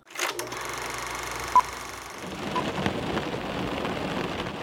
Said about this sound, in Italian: Quanto è bello essere in macchina e sentire il ticchettio della pioggia sul parabrezza. È rilassante l'acqua che si accumula sul vetro.